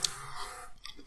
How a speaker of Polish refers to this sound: Dobra, gryzę. No jest naprawdę konkret. Faktycznie tego ciasta troszkę tutaj jest, no ja bym je troszkę zmniejszyła, mhm. ale jest fajna ta kruszonka.